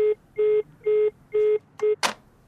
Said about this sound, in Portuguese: Ela não me deixou dizer nada. Depois desligou o telefone.